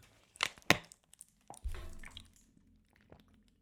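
Wet mouth sounds of someone drinking water ASMR-style: a couple of sharp clicks and sips, then a low gulp with liquid squishing, followed by a few quieter swallowing noises.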